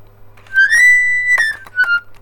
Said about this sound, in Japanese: あとはなんかこうこう曲を吹くとかじゃなくてうんなんか例えばこう適当に鍵盤ハーモニカを触って